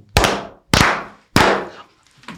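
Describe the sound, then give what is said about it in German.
A group claps three times in unison, as part of a routine of clapping three times and jumping twice, loud, sharp and evenly spaced about half a second apart, each clap ringing briefly before a faint softer sound at the end. No one speaks. “Also dreimal klatschen, ja. zweimal springen.”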